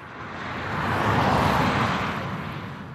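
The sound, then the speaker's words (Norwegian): Traffic rushes by on the E6 motorway in Østfold, Norway, on a stretch with a cable median barrier, a broad steady roar that swells to a peak mid-clip and eases off again as vehicles pass. No voices are heard. “På E6 i Østfold suser bilene forbi på et stykke av motorveien som fikk vaierrekkverk i midten,”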